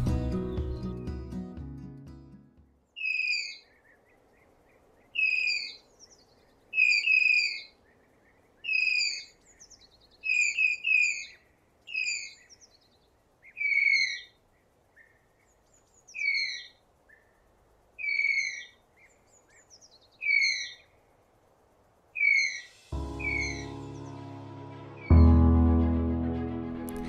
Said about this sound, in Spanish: Los tapires pueden hacer sonidos como de pajarito. Así es, silban, chillan y pían. ¡Qué curioso! Vamos a escucharlo.